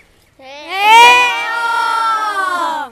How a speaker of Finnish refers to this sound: No niin, sitten iso huuto kaikki ne, jotka itse tunnette ihan oikean elävän taiteilijan.